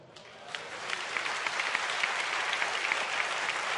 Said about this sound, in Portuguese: eu posso dar o meu aplauso ao meu Senhor.